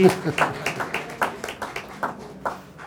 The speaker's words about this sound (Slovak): Ten potlesk patril Martinovi Mojžišovi.